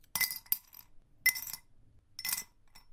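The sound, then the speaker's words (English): Loose glass shards from a broken glass box clink and rattle in three short bursts, bright, as if being shifted or scooped up, with quiet pauses between each handling. “wow, that's a lot of glass.”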